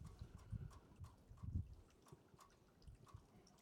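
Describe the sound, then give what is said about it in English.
Rainwater drips and patters irregularly outdoors, falling through drains and off a roof and hitting in different places in soft, scattered taps over a low, muffled rumble. Quiet and steady, with no voices. “I can hear the raindrops coming through the drains. I can hear it, some coming off the roof, and I can hear, I can hear the rain hitting in different places.”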